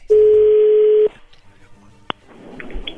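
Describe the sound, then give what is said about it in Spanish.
A phone line rings with one loud, steady mid-pitched tone lasting about a second, followed by quiet line hiss, a sharp click, and faint murmuring. “Ahí entra la llamada.”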